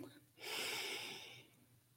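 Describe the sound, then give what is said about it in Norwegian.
A single deep, audible inhale during a guided breathing exercise, a broad airy rush lasting about a second before tapering off, with no talking over it. “Og nå puster du godt inn igjen.”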